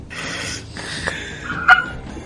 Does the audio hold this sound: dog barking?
yes